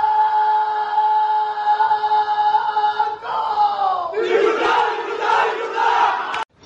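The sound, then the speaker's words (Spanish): Members of a club shout a battle cry together, a long sustained unison yell that breaks into louder, rougher cheering and hollering partway through before cutting off abruptly. “Termina dando ese grito de guerra”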